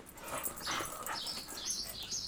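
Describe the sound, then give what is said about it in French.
A female labrador-shepherd mix dog, adopted two years ago, whimpers in a string of thin, high-pitched whines that rise and fall over a couple of seconds, with no one talking. “J'ai un chien, je l'ai adopté il y a deux ans.”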